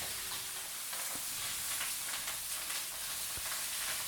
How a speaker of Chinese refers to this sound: 大概一整天后，时时刻刻都会听到炒东西的声音，一下炒这个，一下炒那个